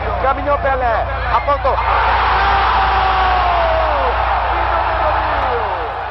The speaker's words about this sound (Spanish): Es la ovación del gol número 1000 de Pelé en el año 1969 en el mítico estadio Maracaná.